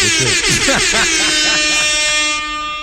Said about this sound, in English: Can we get an air horn?